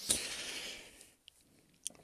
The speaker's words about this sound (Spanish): Y bueno, aquí damos un, un traguito a la, bebida refrescante.